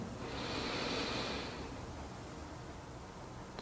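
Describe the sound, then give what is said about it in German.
A single long, airy deep breath drawn in, the second deep inhalation of a guided breathing exercise, a soft hissing rush lasting about a second before fading into quiet hiss. “Wir nehmen den zweiten tiefen Atemzug und atmen ein.”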